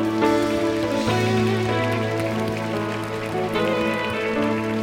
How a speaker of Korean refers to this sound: 기뻐의 박수 올려드릴까요?